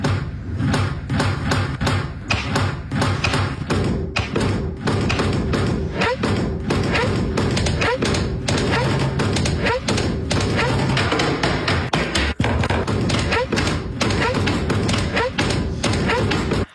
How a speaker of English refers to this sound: So every sound you hear is the sound of me closing a door or drawer in our house.